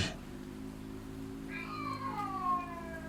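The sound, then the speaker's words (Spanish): Cats yowling in long, wavering, drawn-out cries like cats in heat, rising in partway through and sliding downward in pitch, over a steady low hum. “De repente los gatos empezaron a mullar como si estuvieran en celo.”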